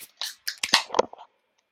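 A can of Skygazer raspberry sweet cherry chocolate soft serve beer cracks open in a quick cluster of sharp, crackling snaps and a brief bright hiss, lasting about a second before silence. No one speaks.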